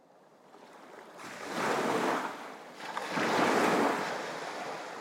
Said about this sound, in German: das Tosen der Brandung übertönte all die Stimmen in seinem Kopf